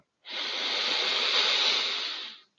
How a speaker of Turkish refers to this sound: Burundan derin bir nefes al.